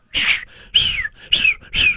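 Loud bird calls: four sharp whistling chirps that sweep downward in pitch, repeating in a steady rhythm with brief gaps between them and no voices.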